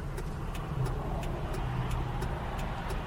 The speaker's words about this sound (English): Ugh. Oh, come on, traffic. I'm not in the mood for all this. Man, come on.